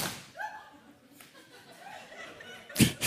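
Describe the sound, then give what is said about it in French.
A drink can is crushed underfoot by a person weighing 93 kilos in one sudden, loud crunch near the end, after a few seconds of faint voice and soft chuckling. “Donc voilà, cette canette résiste pas.”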